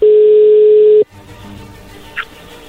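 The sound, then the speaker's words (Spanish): A loud, steady telephone line tone holds for about a second, then cuts off abruptly as the call connects, leaving a faint, hissy open line with a brief soft blip. “Ay, cálmense, a ver, ahí ya entró la llamada, no hagan ruido, adelante”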